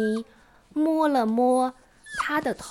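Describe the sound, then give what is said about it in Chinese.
A stray dog at a hospital entrance gives a drawn-out, high whimper lasting about a second, with a rising and falling whine. A voice then speaks briefly afterward. “那只流浪狗还在医院门口。”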